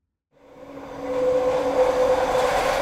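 A high-speed train whooshes in after a brief silence, its rushing roar swelling steadily to a loud, sustained drone with a faint humming whine running through it.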